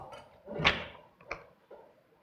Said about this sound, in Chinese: 说着，biang biang 几声，用力推门。